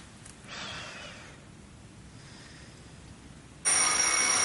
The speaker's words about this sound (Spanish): René sale del cuarto biblioteca y apaga el despertador en la sala.